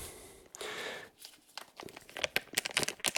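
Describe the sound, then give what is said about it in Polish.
A British five-pound banknote is handled for a banknote-recognition device, giving off dry paper crinkling and rustling: a broad hiss early on, then a run of sharp, irregular crackles and snaps that grow busier toward the end. “Słychać pierwszy banknocik na tapetę.”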